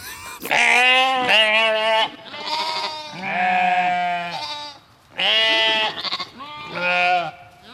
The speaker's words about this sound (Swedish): Nej men du, vi har ju faktiskt får på ön.